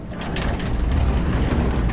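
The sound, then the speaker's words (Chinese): A steady mechanical rumble with rattling, clanking metal as an elevator jolts, the low grinding sustained throughout with scattered sharper knocks on top; no voices. “导师电梯抖了一下，”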